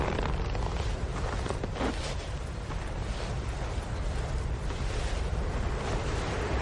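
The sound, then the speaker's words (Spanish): A snowstorm wind roars steadily and loudly throughout, a dense, unbroken rush of noise with a deep rumbling undertone and faint gusty swells, with no voices, in a scene from Fargo as Molly walks through the snowstorm holding a pistol. “Bajo la tormenta de nieve, Molly camina pistola en mano.”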